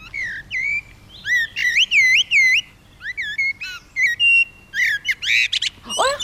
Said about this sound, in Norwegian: det var en svarttrost